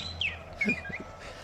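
A parrot mimics robotic beeps and whistles like Star Wars' R2, in a quick burst of bright warbling chirps and short blips, fairly quiet, with no one talking.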